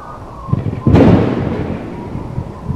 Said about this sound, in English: The wind blows and blows and the lights flicker. With another thunderclap, the lights go out.